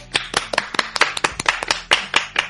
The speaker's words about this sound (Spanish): un aplauso